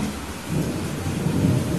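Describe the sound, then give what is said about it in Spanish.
Steady, dense rain hisses across the whole clip while a deep, continuous thunder rumble rolls underneath, swelling slightly toward the end. No voices are heard. “le dije que quizás deberíamos comenzar a considerar caminar bajo la tormenta.”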